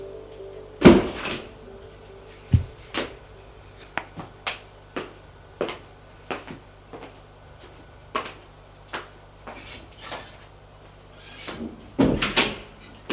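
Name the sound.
door opening and closing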